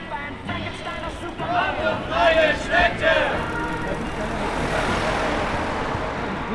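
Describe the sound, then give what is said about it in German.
An outdoor crowd at a cycling demonstration chants slogans in a few loud, rhythmic shouted bursts, then fades into a steady murmur of many voices over a low street rumble. “Es darf weitergehen, als offizielle, spontan angemeldete Demonstration.”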